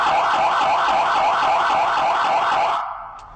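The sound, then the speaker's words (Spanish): An emergency vehicle siren sounds its intersection-warning tone, used at crossings to warn drivers the vehicle is passing: a loud, rapid warble sweeping up and down in pitch about twice a second, steady for nearly three seconds before cutting off abruptly. “Este tono siguiente es el que utilizamos en cruceros o intersecciones. Esto es para avisar a los conductores que vamos a pasar.”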